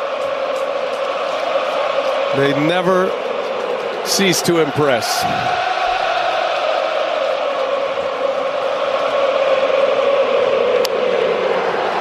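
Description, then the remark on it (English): A big stadium crowd roars through a mocking tomahawk chop chant aimed back at Braves fans, a loud, steady wall of voices, while an announcer briefly talks over the noise. “The, the, the mock chop last night.”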